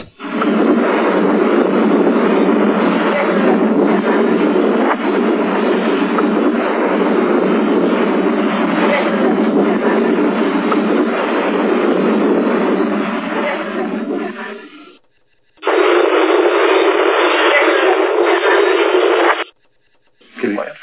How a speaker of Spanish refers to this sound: vamos a escuchar una psicofonía obtenida en, en Ochate, en, en este pueblo, en este pueblo de, de del norte.